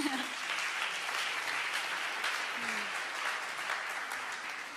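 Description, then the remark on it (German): Steady, dense applause from a crowd, many hands clapping in a continuous hiss-like wash that holds its level throughout with only a slight fade at the end; no one speaks. “Halleluja, also gut, lass uns mal einen Applaus geben.”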